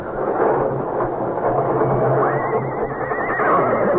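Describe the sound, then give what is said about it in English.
Agitated horses in their stalls whinny and neigh over a loud, dense rumble of commotion, with a rising, wavering neigh standing out toward the end; the noise is continuous and agitated, with no clear speech. “all the noise in there? What's the matter with the horses?”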